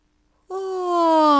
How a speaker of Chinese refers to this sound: 他打了个哈欠，又打了个哈欠，然后又睡着了。